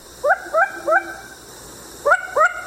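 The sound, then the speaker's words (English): A long-eared owl gives five short, sharp alarm barks, three in quick succession and then two more after a pause. Each has a rising, yelping tone like a small dog's yip, heard alone against a quiet background. “Its face seems to wear an expression of surprise, and when alarmed, it barks like a small dog.”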